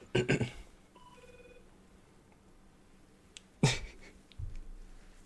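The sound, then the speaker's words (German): A telephone rings with a short burst of electronic tones, a few quick stepped beeps, framed by loud clicks and handling noises; no one speaks. “Telefon!”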